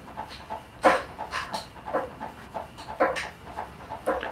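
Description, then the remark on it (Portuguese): A dog named Laricinha pants in quick, breathy bursts, a steady rhythm of short huffs with a few sharper, louder breaths mixed in, and no one talking. “A Laricinha que apareceu.”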